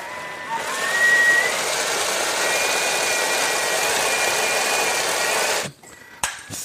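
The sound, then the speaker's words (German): A blender blending chickpea puree whirs steadily for about five seconds, a dense, loud motor roar with a faint high whine, then cuts off abruptly, followed by a brief clatter. “So, jetzt noch einmal, einmal mixen”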